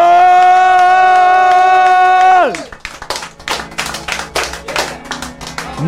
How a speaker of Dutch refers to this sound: applaus voor de one only …!